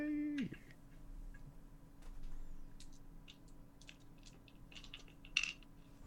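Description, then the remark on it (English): A rapid scatter of small hard clicks and clatters of black dice being rolled for a willpower roll, tumbling across a table, fairly quiet, ending with one sharper knock. “Roll your unspent willpower. So that is only black dice.”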